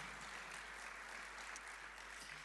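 A crowd at a church service claps steadily to honor church leaders, a dense wash of overlapping hand claps that holds an even level throughout, with no voices standing out.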